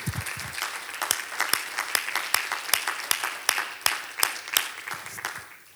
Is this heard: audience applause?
yes